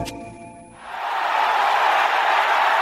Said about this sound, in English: Listen to that crowd roar. Art the Aspen Mortgage team has just hit the field and the crowd has gone crazy.